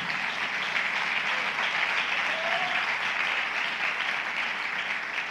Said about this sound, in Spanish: No, si le va a dar un aplauso, déselo bien.